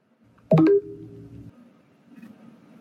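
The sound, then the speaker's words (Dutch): The new version of the Mac 'Funk' alert tone from an Apple Mac beta, the standard sound played when you do something wrong: a single short synthetic tone with a sharp, bright attack and a few stacked tonal pitches, quickly fading into a soft, low ringing tail, with no voices. “ter vergelijking, dit is de oude standaard alert tone. funk heet die.”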